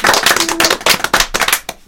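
A short burst of loud, brisk audience applause for the winners: many overlapping hand claps in a dense, irregular patter, with no voices, tapering slightly toward the end.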